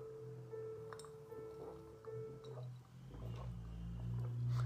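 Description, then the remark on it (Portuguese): Someone takes a quiet sip of water, with soft wet swallowing and faint liquid sloshing over a low steady hum, and no one speaks. “Deixa eu só beber um pouquinho de água.”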